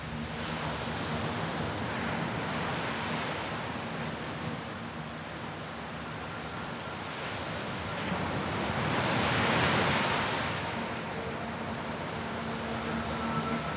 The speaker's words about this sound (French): Il y a le bruit des vagues plein les oreilles quand on fait face au soleil.